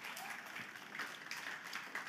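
A crowd applauds steadily, many hands clapping in a dense, even wash of sound that holds at a consistent loudness throughout.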